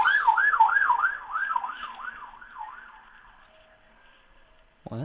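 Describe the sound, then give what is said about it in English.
A police car siren wails in a rapid up-and-down yelp during a chase, with only one police car pursuing, loud at first and then fading away, followed by a brief thump at the end. “How is only one police car behind it?”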